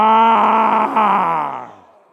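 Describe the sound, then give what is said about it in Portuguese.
A group of men at a church service roar together in imitation of male lions on a count of three, one sustained low, harmonic bellow lasting about two seconds, loud at first and then trailing off. “Faz o seguinte: eu quero só os leões machos rugindo agora, tá? Vamos só praticar nosso rugido aí, tá bem?”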